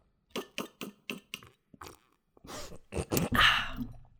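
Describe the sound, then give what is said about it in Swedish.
A person slurps hot tea loudly without a spoon: a few short, wet sips in quick succession, then a long, loud, gurgling slurp with an airy whistle, with no talking. “Är inte så gamlingar, slurpar inte de alltid på sitt kaffe? Att det är den här... Ja, det gör jag på mitt te nu också.”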